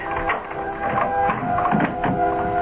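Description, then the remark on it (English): A large old-fashioned key grinds and turns in the lock of a door leading to the upper floors of a house, a steady run of metallic scraping and ratcheting clicks with a faint ringing tone, heard on its own without any talking. “Just as I thought, it opened that mysterious door that led to the upper floors.”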